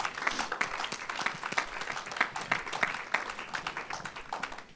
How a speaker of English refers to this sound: Yes, you can give the Lord a round of applause.